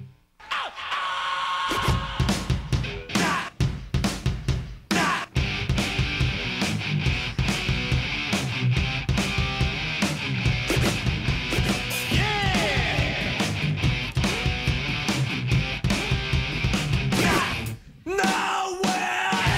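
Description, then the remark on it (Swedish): A loud rap metal track kicks in after a brief quiet moment, with dense, heavy instrumentation, pounding drum hits and shouted, yelled vocals, running steadily until a short drop near the end. “Men vi kan väl lyssna på vad som många anser då, och vad vi kanske också anser vara den första riktiga rap metal-låten,”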